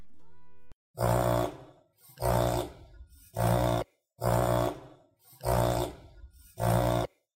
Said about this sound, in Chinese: 对，或者是我们讲这个中文叫逆式呼吸嘛， 嗯嗯，reverse sneezing，reverse sneezing，它这也是这边有一个声音档。